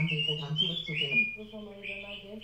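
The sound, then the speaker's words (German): A bird clock plays a recorded birdsong: a continuous, warbling chirp with shifting bright whistle tones over a steadier lower hum, at moderate volume for a couple of seconds. “Ja, drücken, jetzt um die Vogeluhr, macht nichts.”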